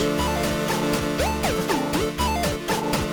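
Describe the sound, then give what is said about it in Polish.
A bright synth drone signal tone glides and bends in pitch over a busy, steadily pulsing chiptune-style track with a thumping bass line, loud and continuous with no voices; the drone plays while the track is playing. “Jest to taki sygnał, który się odtwarza w trakcie grania utworu.”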